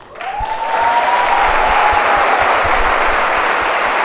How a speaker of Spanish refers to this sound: Y yo creo que ese sí se merece un aplauso.